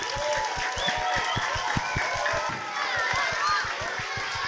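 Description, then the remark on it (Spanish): A crowd applauds loudly and steadily for several seconds, with scattered cheering voices mixed in and a quick, regular low thumping running underneath the whole time. “Terminamos este episodio con un fortísimo Muchas aplauso.”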